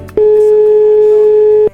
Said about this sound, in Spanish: Estamos marcando y estamos llamando.